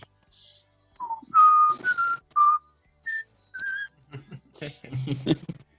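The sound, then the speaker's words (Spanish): A person whistles a short series of clear, bright notes with brief pauses between them, fairly loud, followed by some breathy, noisy sounds near the end. “hoy ha venido el silbador máximo.”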